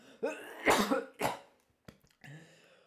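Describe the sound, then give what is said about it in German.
A person coughs several times in quick, harsh bursts, followed by a throaty clearing sound and a short breath, with no talking. “Alter, jetzt muss ich auch krass husten.”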